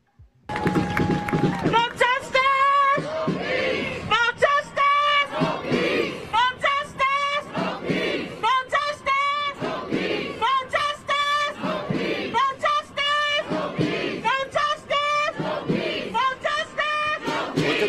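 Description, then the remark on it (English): A large protest crowd, all wearing masks, chants and shouts continuously, many voices rising and falling in rhythmic bursts, loud, with a steady roar of people filling the whole stretch. “size of that crowd.”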